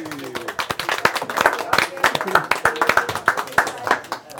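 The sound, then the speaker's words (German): A small group claps steadily for several seconds, with quick, irregular sharp claps, while faint voices murmur underneath, applauding a golfer's longest-drive win. “Applaus.”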